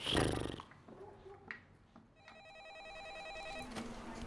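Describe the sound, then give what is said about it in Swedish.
A telephone rings with a warbling electronic trill lasting about a second and a half, heard fairly clearly after a brief burst of rustling noise, as a call is placed to someone at a support line. No one speaks. “Vi ringer och retas med Ragna.”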